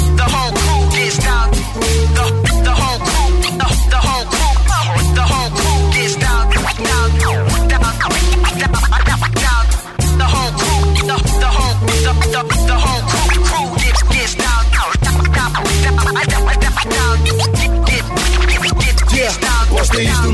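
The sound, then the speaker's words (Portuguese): A loud, steady hip hop track intro from a mixtape, with booming bass kicks and crisp percussion, overlaid with quick turntable scratches that zip up and down throughout; a brief voice slips in once. “Desta vez passamos à mixtape sem censura para vos mostrar um pouco do que lá está.”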